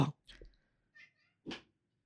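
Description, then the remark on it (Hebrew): A female cat makes a few short, soft sounds, four brief bursts separated by quiet pauses, with no one speaking. “כן, החתולה תשמיד פה משהו.”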